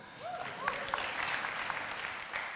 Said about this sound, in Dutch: Applaus voor de mannen daarboven.